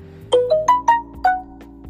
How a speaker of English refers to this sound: That was actually a notification. that was actually a notification from a friend. Um, sorry about that.